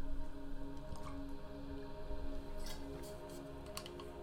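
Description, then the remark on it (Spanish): Someone takes a few quiet sips of water, with soft gulps and small wet clicks over a low steady hum, and no talking. “Purifiquemos con un poco de agua.”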